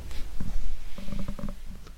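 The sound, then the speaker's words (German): Plastic handling noise: a headphone ear cup being pushed and twisted onto its metal band to latch it back on, with several small clicks and rubbing scrapes over a low rumble, no voices. “ich wollte ihn wieder festmachen und das ist das Geräusch, was ihr hört, dass okay.”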